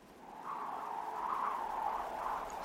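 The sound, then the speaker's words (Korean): A steady, wavering whistle of strong wind through power lines, a thin sustained tone that swells and dips slightly over a breathy rush, moderately loud and continuous with no voices. “전기줄에 바람 스치는 소리예요.”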